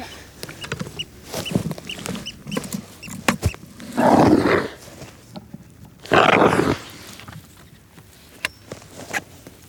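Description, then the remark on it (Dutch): Groundwater in a soil auger hole about two meters deep in peat, dug to take a soil sample, makes two loud, rasping gurgles as the auger is pulled back out. Each gurgle lasts about half a second, with scattered quieter scrapes and knocks around them and no talking. “Want het grondwater was te horen.”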